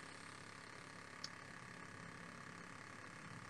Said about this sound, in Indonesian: Suara kipas anginnya masuk tuh.